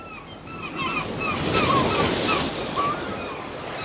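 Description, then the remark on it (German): Steady sea surf on the coast washes in a broad, continuous roar with wind buffeting the microphone, swelling slightly mid-way; faint chirping calls, like seabirds, flicker above the noise. “Jetzt geht's ans Meer.”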